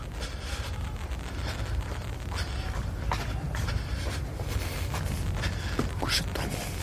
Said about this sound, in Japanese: 結構足音も入ってるしれませんね。あの、階段上がったり降りたりしてるんで、息が上がってるわ。はい。そういうのも入ってるかもしれませんけども、まあ、ウッドデッキの上歩いてるので、ちょっと足音が大きいですね。はい、これ階段降りてるところですけども